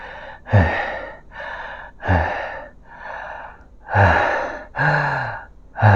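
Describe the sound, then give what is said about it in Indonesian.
Ragged, desperate gasps for breath from a person lying on a beach after near-drowning and emptying seawater from their body, about seven heaving inhales and exhales in an uneven rhythm, fairly loud, with no talking. “Sudah puas aku mengosongkan rongga-rongga badanku dari air laut.”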